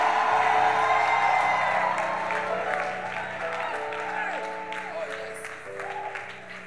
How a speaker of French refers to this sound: Alléluia, clamons très fort et poussons des cris de joie.